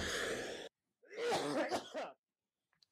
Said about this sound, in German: Das war Husten und Niesen zeitgleich. Das muss man auch erstmal können, oder? Chapeau. Ich ziehe meinen Hut.